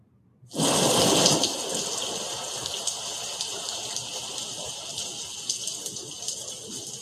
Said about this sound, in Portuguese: O pessoal perguntando se está chovendo aqui, porque eu ouvi um barulho de chuva.